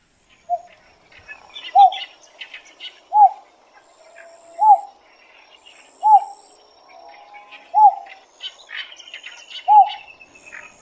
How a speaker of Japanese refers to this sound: なお吉鯉の親鳥の鳴き声は単純で低い声の繰り返しで次のように鳴きます